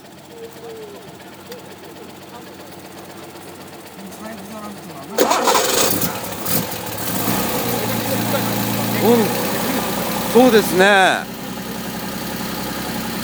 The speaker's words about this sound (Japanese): いやでもこれがね国産車のエンジンなんですよ、ええ、ねええ静か静かですね静かすね